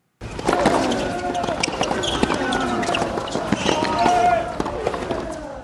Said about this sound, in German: Tennis? Stöhnen. Ja. Das waren aber, das war jetzt bitte nicht ein Spieler, das waren noch mehrere, oder nicht? Absolut, genau.